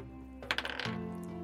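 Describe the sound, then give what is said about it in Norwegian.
A twenty-sided die, rolled for a perception check, clatters across a tabletop in a quick run of small, bright clicks lasting under half a second, then comes to rest showing a natural 20, over a steady low background hum. “Natural 20.”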